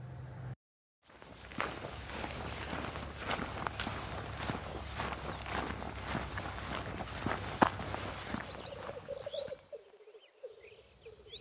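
Steady footsteps walking outdoors on the way to a moor, a long run of regular, crisp steps over a broad hiss that stops near the end, where faint bird chirps remain.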